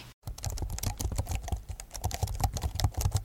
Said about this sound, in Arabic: أو حدا بالمكتب عم يعمل كليك بالقلم الكباس أو صوت مفاتيح الكيبورد لو حدا عم يعمل تايبنج